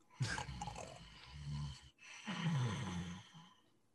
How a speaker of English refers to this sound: much more of the uh, snorer compared to his brother Seven, who's just lightly sleeping away